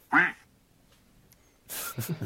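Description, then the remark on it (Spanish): A single loud, nasal duck quack rings out at the start, followed by a quiet pause and then a harsher, buzzy burst of sound near the end. “bienvenidos a este nuevo podcast, Comedia y Tragedia, presentado por ….”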